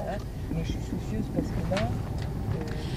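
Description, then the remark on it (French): A car drives along with a steady low engine and road rumble filling the background, while muffled voices talk intermittently over it, on a short drive to a site a little further away. “On va prendre votre voiture.”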